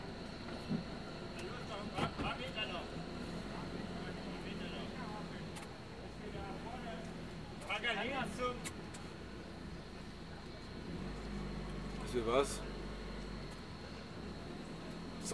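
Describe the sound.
Steady road and engine rumble from inside a moving car, a constant droning hum with a faint high whine, occasional bumps and rattles, and muffled voices murmuring underneath.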